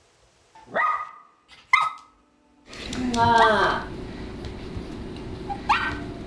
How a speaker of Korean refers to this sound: 그렇게 모두가 잠든 첫날 밤 거실에서 어. 반려견 초롱이가 막 지저대는 거예요. 이게 첫날 이사 온 거니까 어, 걔가 적응을 못했나 강아지가?